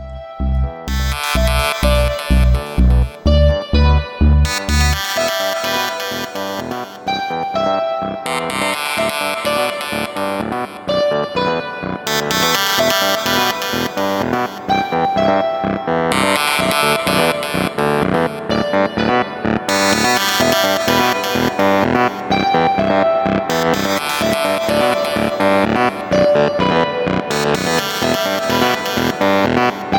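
Electronic chill music plays steadily without vocals, opening with a pulsing low bass beat before bright layered synths enter and repeat in even sections at a constant, moderately loud level.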